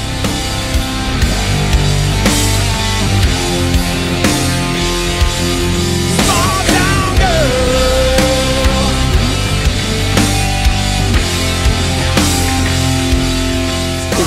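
Loud, dense rock music plays throughout with heavy distorted guitars and steady drums, a sustained guitar bend wailing in the middle; no one speaks over it.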